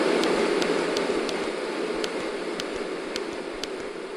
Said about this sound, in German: Die müssten mal bedenken, die Lautstärke können wir uns ja auch noch anpassen. Man kann also das Rauschen ganz leise machen.